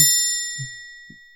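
A single bell is struck once as a 'shame' bell in a Game of Thrones reference, and its bright, ringing tone hangs in the air, slowly fading over the next second with a couple of soft low knocks underneath.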